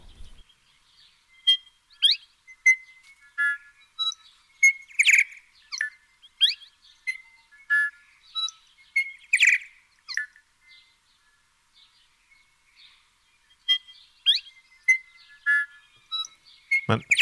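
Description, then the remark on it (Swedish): A New Zealand bellbird (korimako) sings clear, ringing, bell-like notes mixed with sharp chirps and clicks, delivered in irregular bursts with brief pauses, prominent against a quiet background. “Den heter alltså Corimako. På engelska är det New Zealand Bellbird.”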